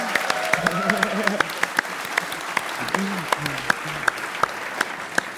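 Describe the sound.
A crowd claps steadily and densely for several seconds, sharp individual claps popping out of the wash, while a few voices call out and cheer over the applause.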